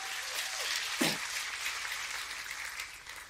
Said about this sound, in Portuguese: Quem pega essa palavra, dá mais um glória a Deus, aplauda o Senhor.